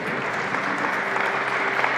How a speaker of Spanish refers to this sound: Gloria al Señor, un aplauso fuerte Señor.